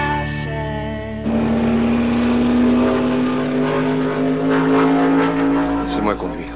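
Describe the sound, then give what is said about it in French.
A stock car engine roars loudly, jumping to a higher pitch after a brief lower idle and then holding a steady, buzzing whine that climbs slightly before cutting away near the end. “Tom Cruise, ambitieux jeune pilote, est recruté par Randy Quaid dans son écurie de stock car.”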